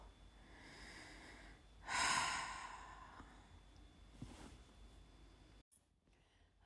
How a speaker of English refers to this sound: Sorry, I just had to put some wood on the fire. And it makes a lot of creaking noises. Not very pleasant.